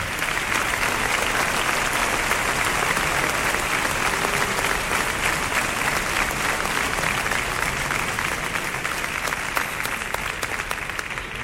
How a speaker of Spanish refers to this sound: Cuando quieran, nos venimos para acá y también les expresamos nuestro cariño con este aplauso y al director de Canal Sur Radio, Juan Miguel Vega.